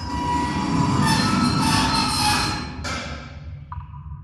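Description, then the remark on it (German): A train rolls past on the tracks, a loud, continuous rumble with rattling wheels and a high metallic squeal that fades as it moves away. No one speaks. “Was war das? Das kam vom Bahngleis.”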